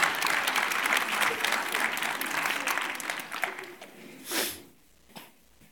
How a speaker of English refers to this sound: All right, let's give a round of applause. Good job, guys. Thank you.